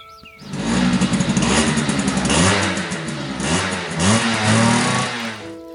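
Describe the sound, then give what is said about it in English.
A dirt bike engine revs loudly and continuously at about 9 p.m. as a person rides it up and down a field, its pitch rising and falling in repeated surges as it accelerates and eases off, with no voices. “But on the field beyond, there bestrides a person on a bike, journeying up and down, up and down, up and down length after length.”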